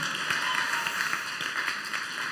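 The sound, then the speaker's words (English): A crowd claps together in a dense, steady burst of applause, many hands overlapping into a continuous bright patter that holds at an even, fairly loud level throughout. “Wait, clap. Oh no, I want a real clap.”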